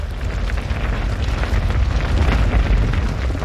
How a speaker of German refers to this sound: Das Geräusch, das bei einem Murgang entsteht, wenn Steine sich in einem steilen Bachbett in Bewegung setzen, pflanzt sich im Boden kilometerweit fort und kann von den empfindlichen Geräten problemlos aufgezeichnet werden.